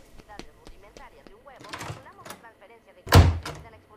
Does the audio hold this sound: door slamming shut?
yes